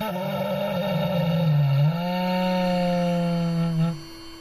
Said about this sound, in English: when you depressurize the suit it, it suddenly exhales like i don't know like someone's last breath with sort of a moan